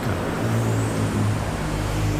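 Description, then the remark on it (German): Dense city road traffic in London rumbles steadily, with engines droning and a low, constant hum of passing cars and heavier vehicles, no voices. “obwohl sie hier nicht auf der rechten, sondern eben auf der linken Seite fahren muss, bisweilen durch dichten Verkehr.”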